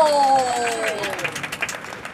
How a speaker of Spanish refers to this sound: terminan su rutina y todo el público aplaude fuertemente. ¡Más fuerte el aplauso!